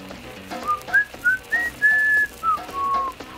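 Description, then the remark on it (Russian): Someone whistles a short, bright melody of about six notes, some sliding up or down and one held longer, clear over a faint background hum, with no talking. “И вы выигрываете свист.”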